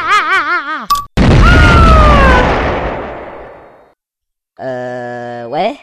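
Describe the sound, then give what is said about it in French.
A wavering electronic tone cuts off into a single loud bomb blast, set off manually, that roars and slowly fades over a few seconds, followed by a brief silence and a buzzy synthetic tone. “Cette saleté de bombe aurait déjà dû exploser il y a 20 minutes Fais chier Bon, j'active l'explosion manuellement.”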